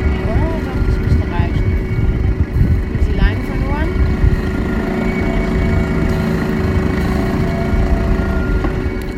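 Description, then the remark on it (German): A small dinghy outboard motor, running again after failing to start, drones steadily throughout with a rough low rumble and a constant tone, while faint voices come and go in the background. “Und jetzt stellt das Dingy-Team fest, dass der Motor nicht mehr angeht. Ah, jetzt geht er wieder.”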